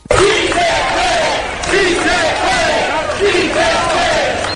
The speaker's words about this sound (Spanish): Algunos de ellos, con lágrimas en los ojos, realizaron esta protesta en medio de gritos de apoyo.